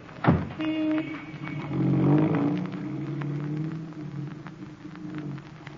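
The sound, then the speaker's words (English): A car engine starts up and pulls away, a low steady rumble with a brief rise in revs, continuing as it drives along with faint rattles and hiss; a chauffeur is driving the car to a dinner at a club. “I'm going straight to the dinner at the Colossus Club alone in my own car with my own chauffeur.”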